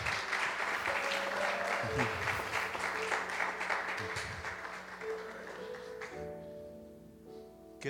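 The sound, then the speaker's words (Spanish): A crowd applauds steadily as an offering of palms to the blessed Trinity of God, a dense, continuous patter of many clapping hands that holds for several seconds before thinning out, with a few voices and tonal sounds mixed underneath. “de una ofrenda de palmas a la bendita Trinidad de Dios, Dios en tres personas.”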